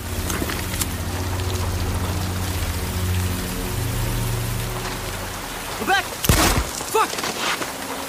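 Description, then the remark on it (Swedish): Steady rain patters on a hard surface with a constant hiss and a low rumble beneath, broken near the end by a few brief, sharper splashing bursts. “Jag, jag bara sitta med det här med regn.”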